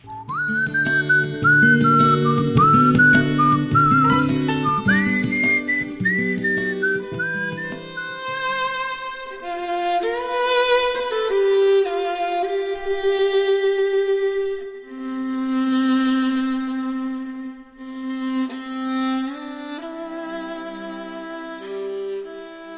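A slow pop ballad recording plays, a high, airy whistle-like melody gliding over soft sustained accompaniment at steady moderate volume, with no talking.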